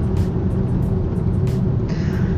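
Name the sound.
car driving in traffic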